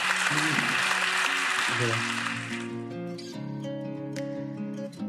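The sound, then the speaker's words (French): Steady audience applause, a dense crackle of clapping, fills the opening seconds, then thins out as a bright instrumental jingle with sustained tones takes over. “Mais merci à vous, c'est moi que vous applaudis.”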